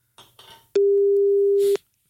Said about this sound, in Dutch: Ik hoor nu wel eh, een, telefoon overgaan.